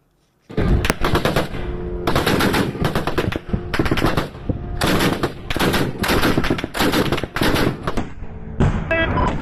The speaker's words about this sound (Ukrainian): Воздушные силы показали, как мобильная группа ПВО уничтожает шахет в небе над Украиной 22 ноября. Всего за сутки э, над Украиной тогда сбили 14 дронов «Камикадзе». Вот как взрывается шахет в небе.